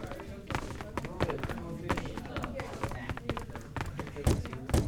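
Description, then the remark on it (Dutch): Footsteps from a video game character walking at a steady, even pace, first to the right and then back to the left, a run of distinct thuds repeating over a continuous tonal background. “Nu ga ik even terug naar links.”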